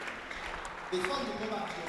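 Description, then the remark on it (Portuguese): An audience claps steadily for a couple of seconds as applause for Jesus, a dense crackle of many hands that swells slightly partway through, with voices murmuring underneath. “Uma salva de palmas para o Senhor Jesus.”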